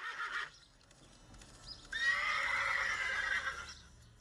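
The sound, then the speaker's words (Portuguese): A horse on a farm in southern Brazil whinnies loudly and at length, its shrill neigh wavering for a couple of seconds after a brief snort, with faint hoofbeats clopping underneath. “Ele era responsável por todos os cavalos da fazenda.”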